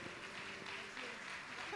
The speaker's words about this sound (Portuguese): Glória a Deus, podeis aplaudir ao Senhor.